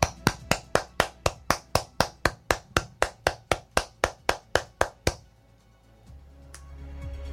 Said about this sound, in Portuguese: Palmas para eles.